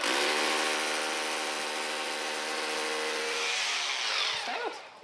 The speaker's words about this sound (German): Also, Sie dürfen jetzt einmal selber bohren. Bitte schön.